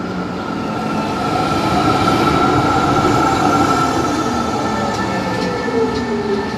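A Tram 2000 model tram runs steadily, with a continuous rumbling rolling noise, humming motor tones and faint wheel squeal, holding a constant loudness throughout with no voices.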